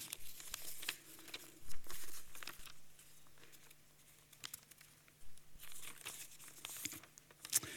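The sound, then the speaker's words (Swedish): Papers shuffled and rustled as a speaker looks through notes for a Bible verse, a steady run of soft crinkles and sharper crackly flicks over about eight seconds, with a faint low electrical hum underneath and no talking. “Då tar jag det från mina papper istället.”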